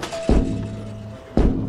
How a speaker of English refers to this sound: you're banging your head against our store window.